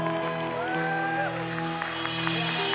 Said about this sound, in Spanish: ¿Usted lo cree? Póngase de pie. Si usted lo cree, dele un buen aplauso al Señor.